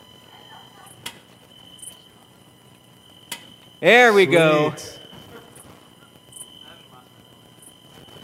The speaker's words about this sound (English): Ah, you hear the crickets? Yeah, I, I turned it down real low because we really don't want it on.